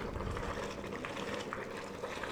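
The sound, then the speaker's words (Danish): A steady bubbling and hissing as plaster boils off inside a mould heated to nearly 1000 degrees, with a constant seething texture and faint crackles throughout and no voices. “Så lige nu koger den alt øh, gipsen af.”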